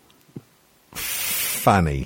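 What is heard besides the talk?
sneeze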